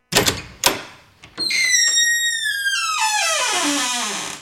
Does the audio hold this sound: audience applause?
no